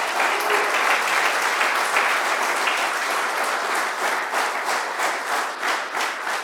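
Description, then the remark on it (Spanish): An audience claps their hands for the Lord in sustained, dense applause, many overlapping claps forming a loud, steady wash that begins to thin and pulse slightly toward the end. “Dale palmas al Señor.”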